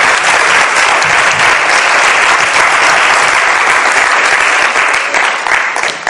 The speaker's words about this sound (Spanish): Así que bueno, lo primero es gracias y yo quiero un aplauso para todos vosotros, todas vosotras, por estar aquí hoy concediendo este espacio.